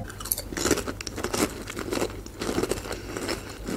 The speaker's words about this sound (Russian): Ну, так было у меня во всех играх, которые, когда случайно включается у кого-то соперников микрофон, да, и да, там да. просто э, кто-то чипсы жрет на полную громкость и... АСМР.